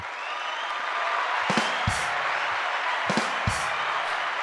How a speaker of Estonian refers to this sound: enne kui ma juhatan ta sisse, siis ma ikkagi tahaks talle teha väikse aplausi ka